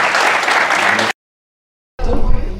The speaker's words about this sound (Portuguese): Não sei se vale a pena pedir uma salva de palmas, vocês da forma agora favor.